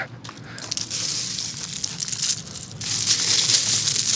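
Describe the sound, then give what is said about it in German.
Steady crunching of footsteps on loose gravel and shells along the bank of the Rhine, a continuous gritty scraping that grows a little louder toward the end, with no voices. “da ist hier Schotter, dann kann man auch hier unten laufen”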